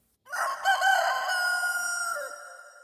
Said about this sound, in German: Auch er hat es gehört. Das war eindeutig das Krähen eines Hahns.